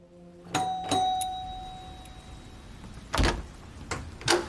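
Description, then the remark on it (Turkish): A doorbell chimes with a sustained ringing tone, followed by a few sharp knocks or door clatters at the door of a 66-year-old landlady on 11 April 2020, with no one talking. “eve geldiğini duyunca 66 yaşındaki ev sahibinin kapısını çalıp durumu görüşmek istediğini söyledi.”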